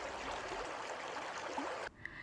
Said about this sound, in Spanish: La represa del Llanito es un lugar muy llamativo para los bañistas, los pescadores y los visitantes. Las aguas parecen tranquilas fluyendo por el río.